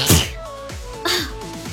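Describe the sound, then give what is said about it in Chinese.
A loud, sharp sneeze bursts out at the start, followed by a breathy rush of air and a soft background of sustained, gliding tones. “欢迎它是一条狗狗，我要打喷嚏了。”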